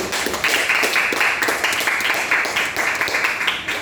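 A crowd claps steadily in sustained applause for an executive committee team, a dense, even patter of many hands, fairly loud, with no pauses or speech standing out.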